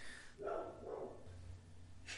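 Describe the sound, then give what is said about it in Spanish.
A female dog barks twice in quick succession, muffled, against a quiet background with a low hum and no talking. “Pinche perra, güey.”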